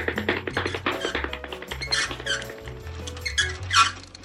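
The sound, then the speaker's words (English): A rubber chicken squeaks in several shrill, wheezy bursts, the loudest near the end, over a busy background of tapping and steady tones. No one speaks. “And hey, you found a rubber chicken.”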